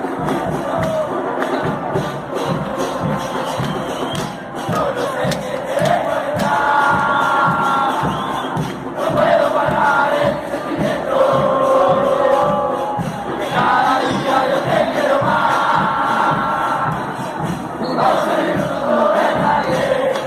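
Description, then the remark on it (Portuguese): A large crowd of Instituto football supporters chants in unison, a loud, steady melodic song rising and falling in repeated phrases over a rapid, insistent beat of drums or clapping, with no pause throughout. “Vamos ouvir a torcida do Instituto”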